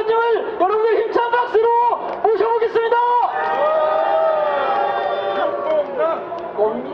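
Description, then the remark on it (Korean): A group of voices at a gathering to restore democracy shouts "Minbyun!" together in unison, first in short rhythmic bursts, then in one long sustained cry that gradually fades out. “우리 다 함께 외쳐봅시다.”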